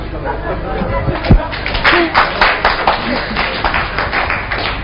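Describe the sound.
An audience claps steadily, many hands at once making a dense, crackling patter of sharp slaps that holds at an even loudness throughout, with faint voices mixed underneath.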